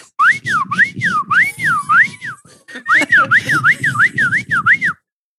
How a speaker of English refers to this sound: That's fucking slide whistle player on the yacht again. God damn it.